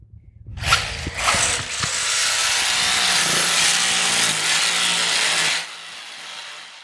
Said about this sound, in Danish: Det er basically bare en sav, øh, som så er eldrevet, fordi øh, det kræver, nu har jeg store muller, men det kræver meget armkraft at skulle øh, save sådan en hest her i stykker. Så derfor får vi lige lidt hjælp fra en stikkontakt.